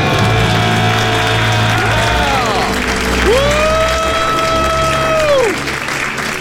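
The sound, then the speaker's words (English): A small group, a family from Colorado celebrating paying off their debt, lets out loud, sustained celebratory screams in two long swells, with cheering and clapping throughout, energetic. “Let's hear a debt-free right. scream.”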